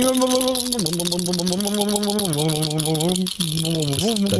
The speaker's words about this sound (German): Würfel machen komische Geräusche.